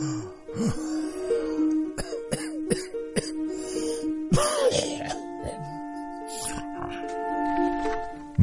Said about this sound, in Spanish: llegaron unos sonidos de la lejanía, algo así como una tos entrecortada.